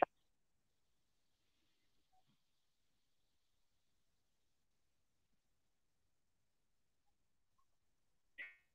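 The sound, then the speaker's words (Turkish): A sudden cutoff from a broken phone call connection leaves several seconds of near-total silence, bracketed by a short burst at the start and a brief crackly blip at the end. “sanırım bir kopukluk oldu”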